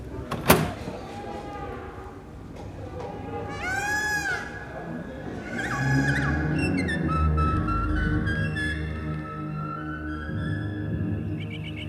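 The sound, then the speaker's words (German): A drink dispenser in use as a token is put in and buttons are pressed: a sharp button click, then whirring, squeaky mechanical tones and a steady rumble as the flap opens and closes, moderately loud. “Marke rein, Taste drücken, Taste drücken, Klappe auf, Klappe zu.”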